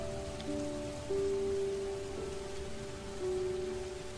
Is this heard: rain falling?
yes